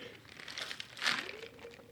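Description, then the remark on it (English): A soft slurping sip of tea with a brief airy hiss in the middle, surrounded by faint rustling and a quiet background. No one speaks. “Again, I'm going to take a little sip of my tea,”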